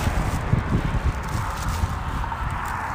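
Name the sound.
wind blowing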